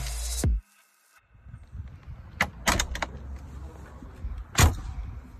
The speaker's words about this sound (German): Aber die Tür, die ist so dermaßen satt ins Schloss gefallen, das hat mich wirklich an die G-Klasse erinnert. ja, und ich habe das sogar aufgenommen. Wir, wir spielen dieses Geräusch einmal ein.